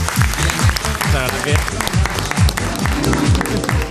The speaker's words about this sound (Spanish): Un aplauso para ella.